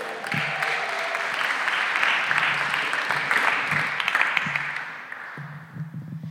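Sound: audience applause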